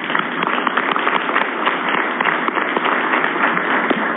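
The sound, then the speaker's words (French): Steady, dense applause from an audience, many hands clapping together in a continuous wash of sharp claps at an even, fairly loud level with no talking. “Vous pouvez, merci les applaudissements.”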